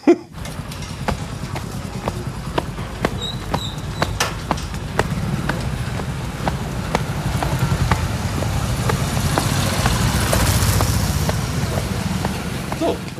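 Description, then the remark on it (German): Busy street traffic in India rumbles steadily with idling engines and passing vehicles, a regular ticking click running through it, and no horns sounding at all during this 10-second stretch. “innerhalb dieser zwei Stunden einen 10-Sekunden-Spot zu finden, wo nicht gehupt wird”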